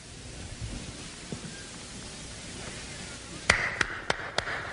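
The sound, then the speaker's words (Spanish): A snowstorm in the mountains of the Alps rushes steadily with a hissing, blustery roar and low rumbles, then four sharp, evenly spaced knocks ring out near the end over the continuing storm. “Esa tarde estaba yo en plena montaña cuando me sorprendió una tremenda tormenta de nieve.”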